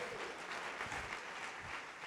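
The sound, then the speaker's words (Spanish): A church audience at Más Vida applauds, giving a round of applause to Jesus for the church: a dense, steady wash of many hands clapping at once that stays at an even level throughout, with no voices standing out above it. “Dale un aplauso a Jesús por esta iglesia.”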